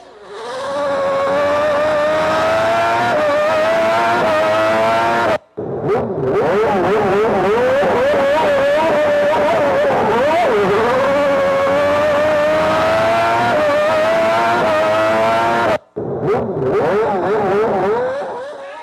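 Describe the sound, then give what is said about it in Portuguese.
A loud, high-revving race car engine screams continuously, its pitch climbing and wavering as it accelerates, broken by two brief cutoffs before roaring back up. “Acelera aí, gente! Vamos acelerar!”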